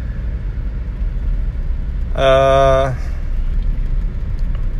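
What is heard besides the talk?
car driving on road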